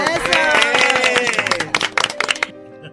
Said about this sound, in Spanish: Bien, aplaudamos.